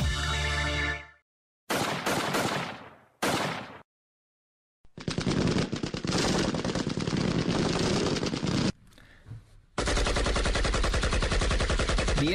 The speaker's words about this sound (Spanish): pues en muchas partes de México se ha vuelto tristemente normal oír disparos constantemente. A cualquier hora del día, cuando escuchamos las detonaciones, pues solemos asumir que se trata de algún crimen, algún asalto o incluso de algún intento